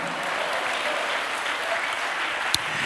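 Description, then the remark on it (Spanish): A church audience applauds for Christ during a sermon, a dense, even wash of many hands clapping at a constant level, with one sharper clap standing out near the end and no voices. “Dale un aplauso fuerte a Cristo, amado hermano.”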